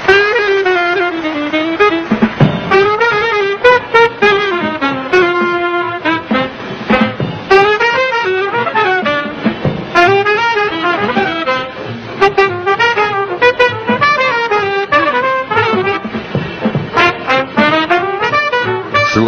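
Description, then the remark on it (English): A live jazz band plays continuously and loudly during a live broadcast, with bright, fast-moving horn lines that bend and slide in pitch over a steady, busy accompaniment. No one speaks. “they say music speaks louder than words, so we'd rather voice our opinion that way, if you don't uh, mind.”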